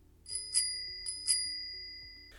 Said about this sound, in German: Oder hast es eben gehört, weil er sich so vertieft hat in seinen Spagat, klingelt ihn jetzt jemand wieder wach. Und das ist eine G-Klingel, also eine Fahrradglocke mit zwei Beinen. Und diese Fahrradglocke, diese G-Klingel, die geht auf den Wegen.